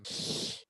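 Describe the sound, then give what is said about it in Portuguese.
A single sneeze, fairly loud: a short, forceful burst of breathy, hissing air that cuts off abruptly after about half a second, with no talking. “Santinho mata. Obrigado.”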